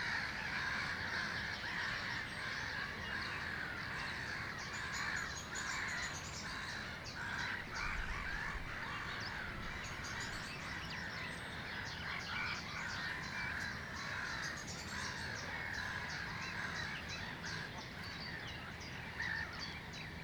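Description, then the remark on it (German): A large flock of gulls calling constantly, harsh overlapping cries forming a dense, steady wall of sound that fills the whole stretch, loud, with no voices, heard from a pavilion with the gulls somewhat further back behind four greylag geese. “sieht man direkt auf vier Graugänse und etwas weiter hinten ist eine ganze Schar von Möwen.”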